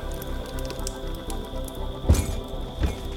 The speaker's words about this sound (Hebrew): באמצע הלילה, נשמעים רעשים מכיוון המטבח. אנחנו שומעים דלת נפתחת ונטרקת. זה כנראה אומר שהאסיר המשוחרר חמק והלך לדרכו.